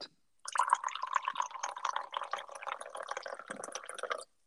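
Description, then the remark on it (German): Tea pours steadily from a teapot into a teacup for about four seconds, a bright trickling and splashing that starts abruptly and stops cleanly, with no voices. “hier mal ein kleines Geräusch, wie der Tee aus der Teekanne in meine Teetasse tropft.”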